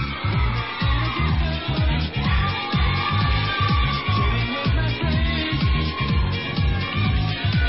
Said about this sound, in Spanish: pedimos con un aplauso a estas grandes chaparritas también que nos han hecho el favor de acompañarnos esta tarde.